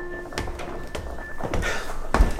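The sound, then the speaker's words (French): A small door in a house in the Luberon is tried repeatedly, giving several uneven rattling thumps and clunks as it resists opening, with a faint steady hum underneath and no talking. “C'est la petite porte là. Vas-y, essaye, ouais.”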